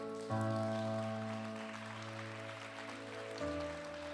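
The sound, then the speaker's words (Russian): Steady crackling applause from a crowd runs throughout, blended with sustained keyboard chords that start just after the opening and shift to a new chord near the end. “Даю огромные аплодисменты.”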